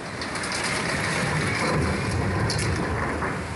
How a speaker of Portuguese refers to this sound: Outro motorista gravou o carro sendo levado pela correnteza.